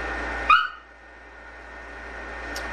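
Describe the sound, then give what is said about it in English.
A single short, sharp bark from a dog named Ruby rings out, followed by a low steady hum and near silence. No one speaks. “We have an interruption from the dog.”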